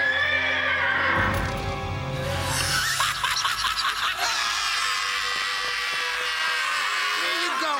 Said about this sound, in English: The clomp of hooves echoes through the park